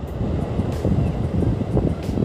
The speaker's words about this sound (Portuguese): O barulho da onda tá aí, ó.